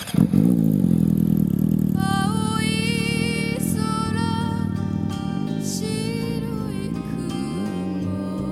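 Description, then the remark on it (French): A Yamaha R6 sport motorcycle's engine revs loud, its pitch climbing through several high-pitched bursts before settling into a steady roar as the rider mounts and pulls away, with no voices. “Il enfourche sa Yamaha R6 et s'envole vers des cieux plus cléments.”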